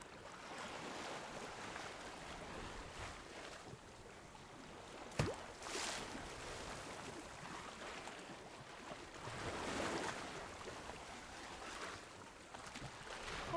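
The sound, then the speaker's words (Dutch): Steady rush of wind and waves aboard a sailboat under sail, with water surging louder a few times and a single sharp knock partway through. No one speaks. “al zomaar zeilgeluiden vanaf deze boot.”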